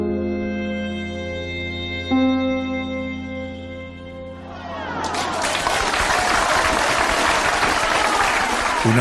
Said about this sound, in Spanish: ovación clamorosa subrayó las últimas palabras del señor Tirón.